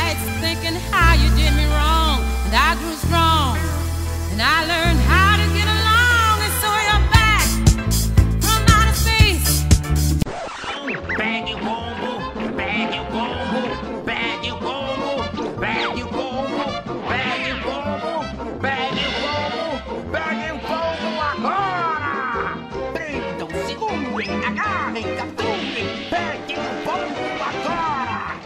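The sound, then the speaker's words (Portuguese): A cartoon theme song, cued by the show's editor to introduce two hosts nicknamed Dick Vigarista and Muttley, plays loudly for the whole stretch, opening with heavy, punchy bass and hits, then switching about ten seconds in to a brighter, busier passage with a singing voice. “Vitor, por favor, música. Dick Vigarista e Mantley.”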